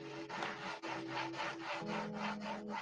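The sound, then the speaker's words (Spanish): Wood scraping against wood in steady, rhythmic back-and-forth strokes, continuous with a low tonal hum underneath: a wooden planchette being rubbed against a spirit board under a bed at 3 a.m. “Ella escuchaba cómo el oráculo se tallaba contra el tablero.”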